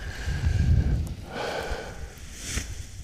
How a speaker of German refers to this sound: Hört ihr das Rascheln? Das sind die Paraglider.